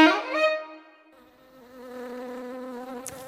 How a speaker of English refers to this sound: And finally, the noise of an angry bee is something we all may recognize, but some beekeepers believe they can deduce the well being of their bees from the sounds that they make.